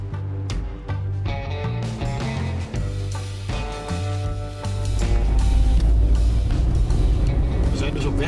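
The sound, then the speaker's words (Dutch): A car gets under way on a drive to Wageningen: a low engine and road rumble swells partway through and holds steady, beneath a layer of sustained melodic tones. “Voor een antwoord op deze vragen stappen we in de auto.”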